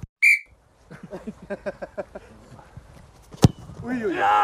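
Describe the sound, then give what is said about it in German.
A single short, shrill referee's whistle blast, blown to restart play, sounds at the very start, followed by people talking, a sharp knock, and a rising burst of noise at the end. “Ja, ich würde wieder anpfeifen, oder? Ja, dann pfeifst du wieder an.”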